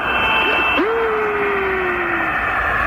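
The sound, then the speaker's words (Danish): An eerie, otherworldly whistle in an Apollo 10 radio recording glides down in pitch, then holds a long, steady tone that slowly sinks, all over a constant hiss and hum of radio static; the astronauts heard it in their headsets on the dark side of the Moon. “You hear that? That whistling sound?”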